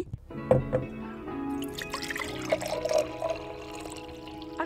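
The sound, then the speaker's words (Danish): Coffee for a cappuccino streams into a cup at a café, a steady trickling pour with a rising, hollow filling tone and a few soft drips, lasting several seconds with no voices. “En cappuccino!”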